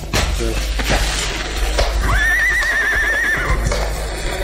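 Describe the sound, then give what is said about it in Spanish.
Soldiers mount their horses and set off on a march; a horse lets out a loud, quavering whinny that trills for about a second, after a few sharp hoof clops on hard ground, with a busy outdoor rumble underneath. “Todos subieron a los briosos corceles”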